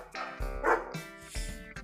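Dogs bark in a quick, overlapping flurry of sharp, yappy barks, several in under two seconds, heard alone with no voices.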